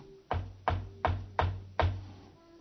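Five firm knocks on a door in a steady, even rhythm, each a hollow, resonant thud with a brief ring after it, close by, with no voices.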